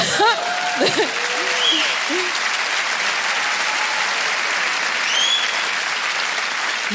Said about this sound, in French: applaudissez tous ensemble, je vous en prie.